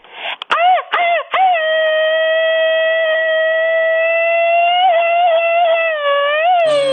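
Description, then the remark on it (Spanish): A loud, high-pitched yell bursts out in a few rapid stuttering pulses, then stretches into one long sustained wail lasting several seconds, in the style of a machine-gun grito. “Qué canción tan llegadora que merece grito ametralladora.”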